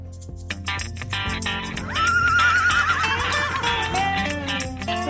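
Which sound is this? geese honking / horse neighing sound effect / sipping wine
horse neighing sound effect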